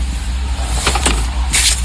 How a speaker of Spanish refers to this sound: Limpiando el carro para que cuando él venga ahorita tenga el carro limpio. Recogiendo toda esa vaina, poniéndosela en el baúl, whatever.